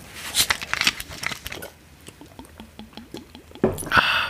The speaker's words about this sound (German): Schön, wie sich die Leute jetzt anhören, wie wir trinken.